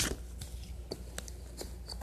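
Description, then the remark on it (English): A book page being turned between verses of a scripture reading: a few soft, crisp paper crackles and rustles spread over two seconds against a low steady hum, with no one talking. “Verse 5 It is not good to accept the, turning page,”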